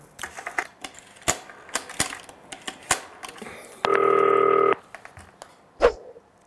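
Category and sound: signal or alarm, telephone dialing tones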